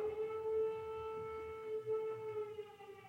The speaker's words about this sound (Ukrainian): Цей запис ми проводили в Києві, тому це не спецефекти, а реальне життя. Якщо вас тригерить і некомфортно чути звук повітряної тривоги, будь ласка, перемотайте дві хвилини.